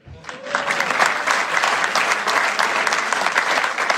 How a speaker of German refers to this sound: Klatschen.